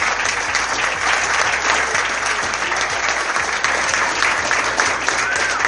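Loud, sustained audience applause for the best-actor award at Desafío 24 fills the whole stretch, a dense steady wash of many hands clapping with no pauses, some background murmur mixed beneath it.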